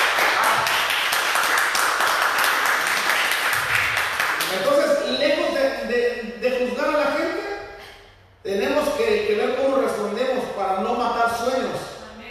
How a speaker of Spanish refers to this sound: ¿Sí o no? Denle aplauso al Señor.